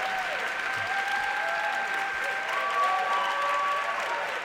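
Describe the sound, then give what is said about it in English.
Steady, dense audience applause picked up through a microphone fills the whole stretch, a continuous patter of many hands clapping at an even loudness, with faint tonal whistles or feedback lines threading through it. “Lots of applause. Can you hear it coming through the mic there?”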